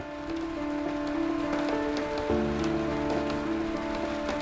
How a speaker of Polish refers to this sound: Tego dnia padał deszcz.